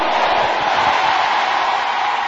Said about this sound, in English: If you believe it, shout amen like thunder.